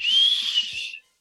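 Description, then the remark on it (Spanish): A single high, steady whistle held for about a second, slightly wavering in pitch before cutting off abruptly, a person whistling to imitate an airplane flying overhead. “El avión se cayó.”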